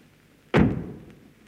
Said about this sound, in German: hinein und die Tür hinter dir zugeschlagen.